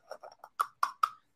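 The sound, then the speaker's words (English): A package of Happy Place Hemp gummies being opened, with several short crinkling bursts: three softer rustles followed by three sharper, louder crackles in quick succession, and no talking. “Do you hear that? I'm opening it.”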